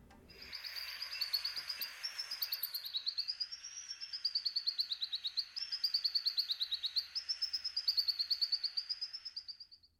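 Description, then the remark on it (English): A blue-headed sunbird gives a long, rapid series of high, thin chirps, clear, the notes rising and falling in quick rhythmic pulses for about ten seconds with no voices. “The bird for today is the blue headed sunbird.”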